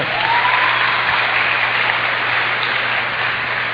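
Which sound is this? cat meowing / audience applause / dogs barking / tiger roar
audience applause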